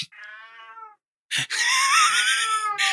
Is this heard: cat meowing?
yes